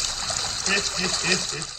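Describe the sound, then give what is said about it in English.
Steady churning of water bubbling in a whirlpool bath (jacuzzi), a constant frothy hiss filling the whole stretch, with a voice murmuring faintly underneath. “Hey, hey bubbles, man.”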